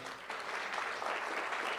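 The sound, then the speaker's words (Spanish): Steady applause from a church audience, given for the Lord, a dense wash of many hands clapping that holds at an even level throughout with no voices standing out. “Cuando un aplauso al Señor.”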